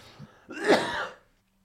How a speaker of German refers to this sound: Oh, ich bin immer noch hüsterig auch.